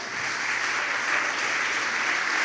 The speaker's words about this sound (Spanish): Estoy diciendo que Dios honra a los que le honran y si lo cree, dele un fuerte aplauso al Señor. Vamos.